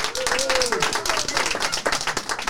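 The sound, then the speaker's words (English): A live audience of Life in Messiah volunteers claps steadily and cheers during a recording, dense applause filling the whole stretch, with a rising whoop or cheering voice riding over the clapping near the start. “Give a clap and a cheer for yourselves again.”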